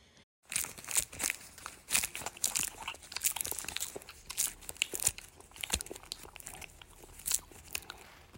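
Crisp crunching of a girl nibbling a dark green leaf with red veins, with repeated bites and crackles in an uneven rhythm, loud, with no talking.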